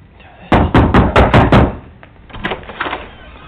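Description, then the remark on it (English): A quick run of about six loud, hard, forceful knocks on a house door by sheriff's deputies, followed by a few fainter, scattered knocks and rattles. No one speaks. “Sheriff's Department, you need to come to the door.”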